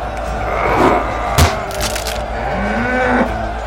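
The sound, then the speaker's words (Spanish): A cow bellows as it is killed, a drawn-out, rising low moan near the end, preceded by a sharp wooden crack, all over a steady rumbling background with no talking. “Esa maldita vaca mágica está muerta.”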